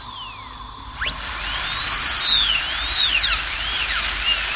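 A dentist's drill whines continuously at a high pitch, its tone swooping up and down repeatedly as it speeds and slows, over a soft steady background hiss.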